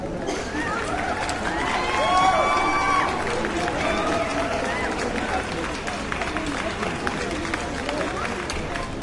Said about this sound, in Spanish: Y ahora démosle un fuerte aplauso a los egresados de la promoción 2013.